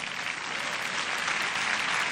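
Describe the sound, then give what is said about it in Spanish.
Steady applause from the single women in an audience, a dense crackle of many hands clapping at an even, fairly loud level for a couple of seconds without a break. “Todas las solteras aplauden, ya las veo.”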